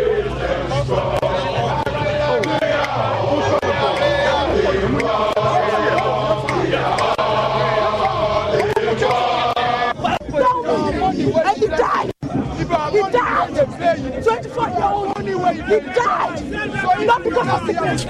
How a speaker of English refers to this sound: As it starts to get dark, the crowd becomes agitated, demanding the removal of barricades so they can demonstrate in front of the Jubilee House.